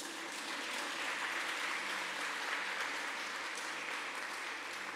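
A church audience claps together for two sisters in a steady, dense wash of applause that holds at an even level for several seconds, with no voices standing out above it.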